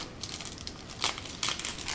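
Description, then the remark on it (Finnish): Crinkly plastic rustles and crackles as the pouch of an unused patch is opened, with a steady stream of small crackles and two sharper, louder crinkling bursts partway through. No one speaks. “Avataan tämä pussukka ja”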